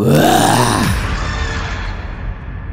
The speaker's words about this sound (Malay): Ada satu suara yang kuat Yang garau, yang sergah dia ni